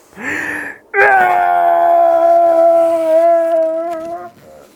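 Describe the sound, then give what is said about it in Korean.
A tyrannosaurus cry echoes over a quiet night sea: a short rising wail, then one long, loud, steady howl-like call with rich harmonics that holds for about three seconds before fading into a soft trailing echo. No one speaks. “고요한 밤바다에 티라노사우루스의 울음소리가 울려 퍼졌습니다.”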